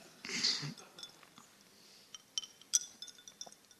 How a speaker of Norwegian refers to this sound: Oi, hørte dere den sildringa i glasset? En sånn fin lyd? Ja. Fikk litt sånn cocktailpartystemning.